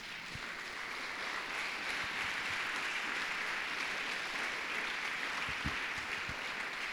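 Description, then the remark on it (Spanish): Sustained applause from an audience, a dense steady wash of clapping that holds at an even level for several seconds, with a few sharper individual claps standing out near the end. “Entonces dale un aplauso, pues.”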